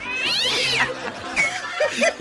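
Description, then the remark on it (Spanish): A cat meows loudly: one long, drawn-out wailing meow, then a few shorter, squeakier meows in quick succession, with no one talking. “¿a poco le da whisky a su gato”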